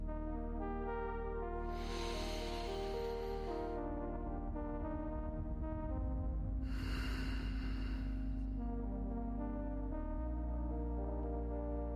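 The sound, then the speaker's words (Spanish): Two slow, deep breaths, one drawn in and one let out, each lasting about two seconds, over a steady, sustained low musical drone. No one speaks. “Toma una respiración profunda.”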